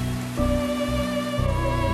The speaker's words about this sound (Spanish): La noche aquella en que todo comenzó, Vladimir miraba a Laika dormir, mientras afuera la lluvia arreciaba.